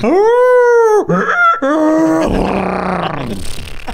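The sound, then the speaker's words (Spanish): A human voice imitates an animal cry, a long strained groaning call followed by a few shorter honking, braying bursts that break into a rough, noisy roar before trailing off. “haber escuchado los horripilantes gritos de la bestia durante toda la noche descritos como una mezcla entre un ladrido apagado de un perro con los chillidos de un burro y los relinchos de un caballo, güey.”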